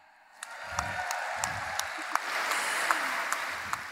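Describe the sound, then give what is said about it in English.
A crowd breaks into sustained applause for the Blue Carbon Lab, starting abruptly and holding steady, with dense clapping and occasional sharper claps standing out, and faint crowd voices rumbling underneath. “So if you're watching on the live stream, Blue Carbon Lab, let's give them all a cheer.”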